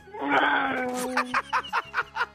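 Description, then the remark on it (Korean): On a Korean radio show's impressions segment (Park Myung-soo's Radio Show), a voice mimics a Lamborghini sports car engine, holding a steady, buzzing, moaning drone, then breaking into about six quick, rhythmic, punchy bursts like revving throttle pops. “저 람보르땡 들어볼게요.”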